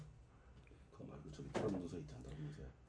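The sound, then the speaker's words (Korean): A chair creaks, a short run of strained wooden squeaks peaking about midway, over a low, steady background hum. “의자는 왜 이렇게 삐걱거려?”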